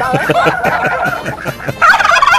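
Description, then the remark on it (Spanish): Turkeys gobbling loudly, a rapid, rattling series of warbling calls that overlap and keep going without pause, with a higher, brighter burst near the end. “¿Jolotes? ¿Qué, más? ¿Qué otro nombre tienen? ¿Pavos? Los chumpes.”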